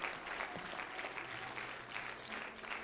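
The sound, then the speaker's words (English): An audience claps their hands in a steady, dense patter of applause that holds at an even level throughout, with no voices rising above it. “You better clap your hands on that one, hadn't you?”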